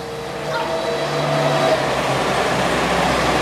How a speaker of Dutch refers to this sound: Er ging even een tractor voorbij, dus eh, we uh, moesten even wachten.